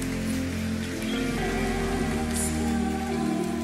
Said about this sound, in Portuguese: Pode dar uma salva de palmas bem forte para Jesus.